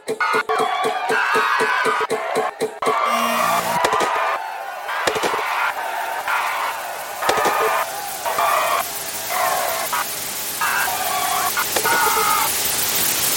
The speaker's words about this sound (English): Another round of applause for Lieutenant Zoo.